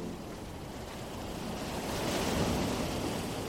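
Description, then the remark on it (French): Steady wash of Atlantic Ocean waves around an ocean liner during a crossing, a broad rushing surge that swells louder midway, with some wind noise mixed in and no voices. “4 heures du matin, sur son paquebot en pleine traversée de l'Atlantique, Alice Guy ne pourrait pas dire quel jour on est tant cette traversée lui semble interminable.”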